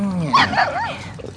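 A dog whimpers in a few short, high, wavering whines that rise and fall, close by and fairly clear, with a faint low murmur underneath.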